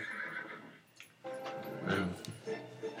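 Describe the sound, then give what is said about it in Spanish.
A horse whinnies loudly, a long wavering neigh with several rising and falling bursts, with faint background noise and no speech. “Que yo quería ponerles, que está. El caballo, mira.”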